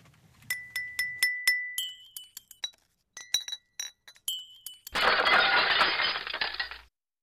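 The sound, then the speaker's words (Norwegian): Bright, ringing clinks of a crystal ball tap repeatedly very close to the microphone in uneven bursts, then a crash of shattering glass, heard far away, spreads out for a couple of seconds before stopping. “Det jeg reagerte litt på, var at uh, han klirra veldig nært mikrofonen, mm, veldig nært, og så knuste han veldig langt borte.”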